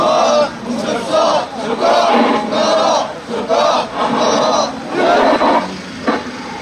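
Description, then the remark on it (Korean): A crowd at a rally of the Ulsan regional headquarters of the Korean Confederation of Trade Unions, 20 September 2016, shouts protest slogans in unison, including a demand to immediately stop a prosecution investigation: several loud rhythmic bursts of massed voices with brief dips between them, forceful and coordinated. “우리의 중견 담아서 구원하나 외치도록 하겠습니다.”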